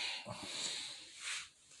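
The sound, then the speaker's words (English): A drink bottle cap is cracked open, releasing a steady fizzy hiss that swells briefly before fading, with no talking. “I'm gonna pop the top on this shit and see what goes for.”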